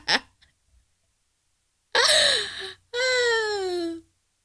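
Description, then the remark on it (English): A child whines in two drawn-out, falling wails, fairly loud, after a brief sharp vocal burst at the start. No one speaks over it. “no, we had some some background Look, noise. Everybody can't hey, find a babysitter every day.”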